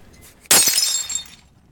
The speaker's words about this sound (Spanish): y tras reventarla con la madera, tomó un trozo de vidrio